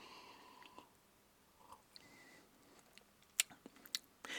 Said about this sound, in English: It is uh, a little bit uh, hot because it's 126 proof. Let's take a sip.